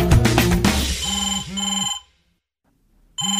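mobile phone ringtone

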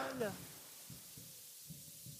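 pigeon cooing

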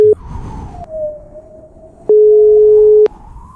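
telephone call tones

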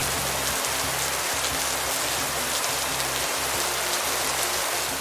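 rain falling

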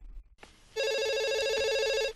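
telephone ringing

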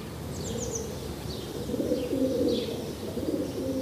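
pigeons cooing

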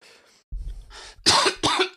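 coughing

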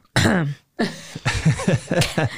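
throat clearing

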